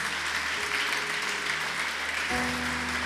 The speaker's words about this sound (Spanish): ¿Puedes darle un fuerte aplauso al Señor?